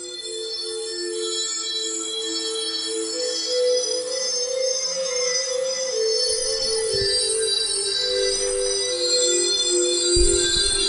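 Dreamy, shimmering music with sustained layered tones and bell-like chimes plays steadily for the whole stretch, without any voices, and a low pulse surfaces near the end; it plays at 2 o'clock on a Wednesday to mark the start of the show Some Call Me Tim.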